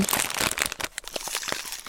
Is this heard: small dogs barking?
no